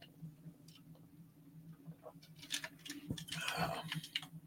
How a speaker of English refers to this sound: let me get a little bit of cotton mouth. Let me take a little sip here